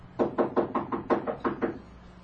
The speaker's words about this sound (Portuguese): No impulso, bateu na porta.